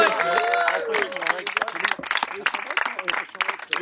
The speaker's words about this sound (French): Ok, bah bon festival à vous. Merci. On peut les applaudir.